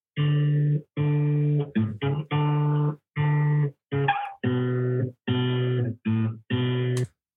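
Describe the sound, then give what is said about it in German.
A hesitant acoustic guitar melody from a beginner's first guitar attempts, about ten separate notes played one at a time with short gaps, each held evenly at moderate loudness, with no voices. “Hören wir da mal rein in deine ähm, ersten Gitarrenversuche.”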